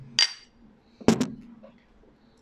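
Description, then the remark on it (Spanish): Glass clinks sharply a few times as a sip of a drink is taken: a bright, ringing tap, then a louder double clink a moment later, with faint handling sounds in between and no talking. “Vamos a darle un traguito.”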